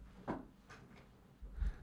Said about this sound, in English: I'm, my chair is creaky. Can you hear it?